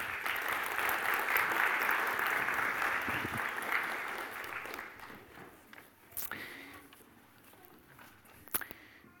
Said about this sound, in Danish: Tusind tak. Giv en applaus.